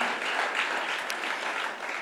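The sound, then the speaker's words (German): Steady applause from a church audience for its small-group leaders, a dense wash of many hands clapping at an even, sustained level with no voices standing out. “Und ich möchte euch mal bitten, einen fetten Applaus an jeden Kleingruppenleiter zu geben, der hier sich investiert hat, der hier mitgemacht hat.”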